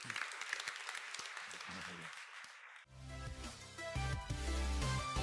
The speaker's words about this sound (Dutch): Laten we God een applaus geven wat hij heeft gezaaid.